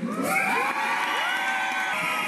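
A dense crowd cheers and shouts at a large demonstration, a steady loud roar of many voices with high whoops rising above it, sustained without a break.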